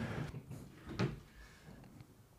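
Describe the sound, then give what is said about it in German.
The drawer of a new desk is handled: a soft scraping slide, then a single sharp knock near the middle as it catches, with quiet room noise and no talking. “Ich vermute, er entsteht äh, in der Schublade meines neuen Schreibtischs.”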